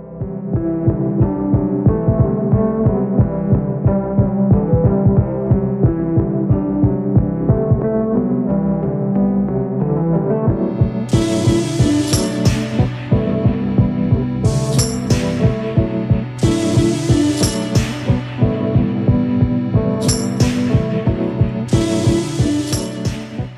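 An instrumental music piece built on a repeating keyboard riff over a steady, throbbing low pulse; partway through, bright crashing percussion hits join in a regular pattern. No one speaks.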